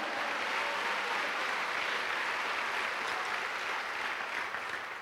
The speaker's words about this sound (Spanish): Dale un aplauso al Señor, a su nombre, gloria.